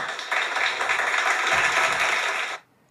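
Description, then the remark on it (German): A burst of crowd applause played as a sound effect from a new software tool, dense steady clapping that swells in and holds for about two and a half seconds before cutting off abruptly, with no voices. “Applaus hat mich ja. bisher mäßig beeindruckt.”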